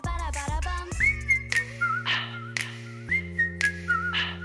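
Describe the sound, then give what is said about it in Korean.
A person whistles a bright, wavering melody over steady sustained chords and soft rhythmic percussive bursts, the whistle clear and up front throughout. “사람이 내는 악기 소리라고 하면 될까요? 이 휘파람 소리는 우리 대중가요에도 단골로 등장합니다.”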